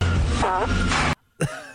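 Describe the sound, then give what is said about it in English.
A loud nose blow, made by someone pretending to blow their nose: a long, breathy, rasping honk, a brief silence, then a second shorter honk with a more tonal, trumpeting edge. “pretend like I'm blowing my nose. Especially listen to the second honk, as it were.”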